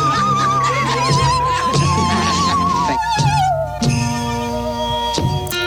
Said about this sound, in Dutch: de zingende zaag op de achtergrond.